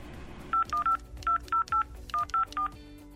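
A telephone number being dialed from the Radio Kranj studio to call a listener: a quick series of nine short, loud keypad tones in uneven groups, with a faint low hum beneath and no voices.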